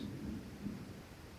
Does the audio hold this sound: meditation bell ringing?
no